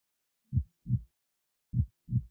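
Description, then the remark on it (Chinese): Two people's deep, thudding heartbeats, a quick double beat, a short pause, then another double beat, low-pitched and muffled with no talking. “隔着大老远，我都能听见这两人猛烈混乱的心跳声。”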